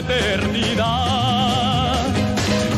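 Two male singers sing a duet on a television show, holding long vibrato-laden notes over a full, steady orchestral backing that stays loud throughout.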